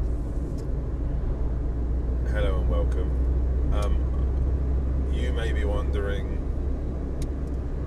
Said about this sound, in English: what on earth is going on what, what's that? Why does it sound like he's? What's going on? What's, what's the, that noise? well, what that noise is is me driving my car. I'm driving my car and talking at the same time.